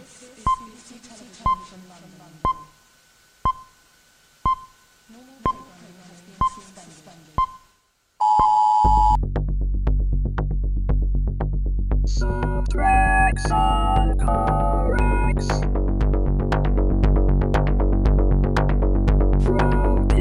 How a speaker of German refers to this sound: Und weiter geht's hier mit den Subtracks. Und ich knall mal den Jingle rein.